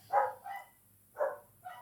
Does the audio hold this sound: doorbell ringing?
no